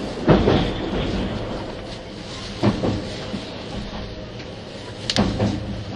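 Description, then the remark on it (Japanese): A 651 series express train, the Super Hitachi 66 service from Sendai to Ueno, running on rails, heard as a steady rumble with three sharp wheel clacks at uneven intervals. There are no voices. “0078,651系外扇型 Sひたち66号 01/01:仙台～上野”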